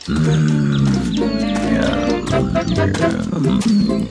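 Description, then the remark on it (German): A large brown bear growls loudly, a deep rumbling roar that rises and falls continuously for about four seconds with no talking. “Oh, oh, der Braunbär?”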